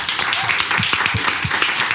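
A short burst of steady applause, many hands clapping together in a dense, crackling wash at a moderate level, with faint low murmurs underneath.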